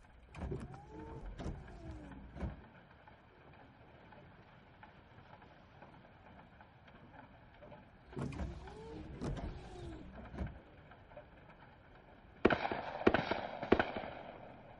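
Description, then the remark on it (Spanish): Sharp, cracking gunshot-like bangs burst out in scattered clusters as a woman shoots at donkeys grazing in a meadow, some loud, with a quieter stretch between them and a harsher, denser volley near the end. “Le dispara a uno de los burros que cae muerto al suelo.”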